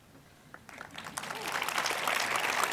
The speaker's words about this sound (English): Cool. Thank you. And the reason they're clapping is they know how true what I just said was. Yes. And you're clapping yet conflicted.